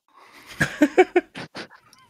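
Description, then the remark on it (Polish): A voice imitates laser beams from someone's eyes: a quick run of strained, yelping vocal bursts, then two breathy hissing zaps. It sounds fairly loud and stands alone. “Słyszycie obaj w tej chwili taki krzyk.”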